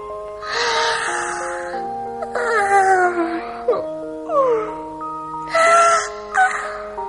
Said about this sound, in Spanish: Estoy tan cansada y he comido tan bien que necesito echar una siestecita. Se dijo Ricitos de Oro entre bostezo y bostezo.